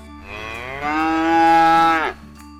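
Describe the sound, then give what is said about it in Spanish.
A single loud, drawn-out cow moo lasting about two seconds, rich and harmonic, rising in strength midway before cutting off abruptly. Clear, with no talking. “Hola, buenos días, señora vaca.”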